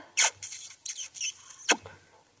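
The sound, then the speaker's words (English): Squeaky, wet kissing smacks, a sharp one at the start and another near the end, with softer squeaking kiss sounds between them, not loud. “How's about a kiss for good luck, chicken?”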